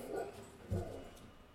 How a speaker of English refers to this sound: oh god shush dog.